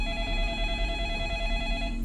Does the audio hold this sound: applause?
no